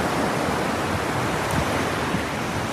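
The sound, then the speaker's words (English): A steady, full wash of sea surf, a continuous hissing roar of waves with no distinct breaks, fairly loud and unbroken throughout, with no voices. “As you may be listening to the, you know, the, the birds if you can hear them, or the sea coming in and out.”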